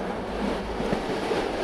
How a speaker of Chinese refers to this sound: 时间回到二战末期，一列火车缓缓开进了奥许维兹集中营，这里是个货真价实的地狱。